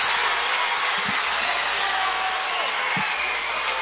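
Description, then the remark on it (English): A loud, steady roar from fans in the gym at the Civic Center, West County and Central New Madrid supporters jeering and cheering from opposite sides after a foul call, voices shouting together in a dense wash of noise that never lets up, with a few sharp thuds underneath. “and jeers and cheers pouring out from opposite sides of the gym, depending on what primary color comes on that side.”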